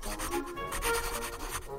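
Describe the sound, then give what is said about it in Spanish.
Colored pencils scribble quickly across sheets of paper as a girl draws at a desk, a steady run of short, scratchy back-and-forth strokes, fairly quiet, with no voices. “Así que mamá la llevó hasta su escritorio y le dio hojas de papel y lápices de colores para que dibujara.”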